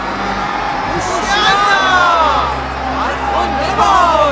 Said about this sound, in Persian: فردای آن روز جمعیت بزرگی که برای عید آمده بودند وقتی شنیدند عیسی در راه اورشلیم است شاخه های نخل به دست گرفتند و به استقبال او رفتند آنها فریاد میکردند